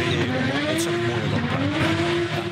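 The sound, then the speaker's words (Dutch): A drifting car's tires squeal loudly and continuously on dry asphalt, burning rubber and making lots of smoke, a high wailing screech that wavers in pitch over a steady engine roar, with no one speaking. “Het gaat ook gepaard met enorm veel geluid en heel veel rook. Als, je dat op droog asfalt doet, dan gaat het heel hard met rubber.”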